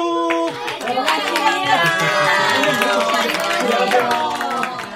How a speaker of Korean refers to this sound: 변함없이 영산고등학교 1학년 학생들이 우리 일선여중으로 과외 무료 봉사를 나와 주셨습니다. 자, 박수!